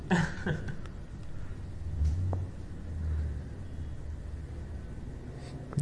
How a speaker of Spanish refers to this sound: Vaya en moto.